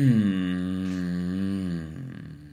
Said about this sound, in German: Und da gehen wir auch einfach tief in diese Tonpraxis rein, wie du mit ganz wenig Einsatz deiner Stimme und auch teilweise einfach nur so ein Geräusch wie mm